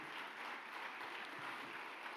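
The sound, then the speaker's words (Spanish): A church audience bursts into loud, sustained applause during a Christian sermon, a dense wash of many hands clapping together that fills the entire moment without any voices over it. “del otro aplauso fuerte.”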